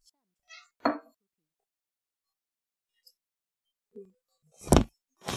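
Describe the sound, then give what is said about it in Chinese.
A spoon knocks against a can of cat food while a small cat is being fed, in a few sharp, scattered clinks, the last one loudest, with brief soft meows from the cat between them and quiet gaps. “我现在要喂猫，嗯，给它一点猫罐头，你会听到，呵呵，你会听到猫罐头。勺子碰到罐头的声音，小猫的叫声，拌罐头的声音，哇，它好着急呀！”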